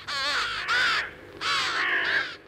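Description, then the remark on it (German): A crow caws loudly, harsh rasping calls in two quick groups separated by a short pause, with no other sounds around them. “Und trotzdem können auch Rabenvögel kleinere Mengen unterscheiden.”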